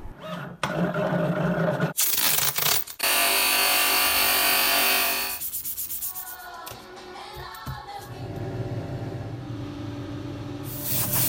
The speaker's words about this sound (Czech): Určitě jste zachytili, že tam byla bruska, že tam byly další nástroje, byla tam i stříkací pistole, to jste poznali.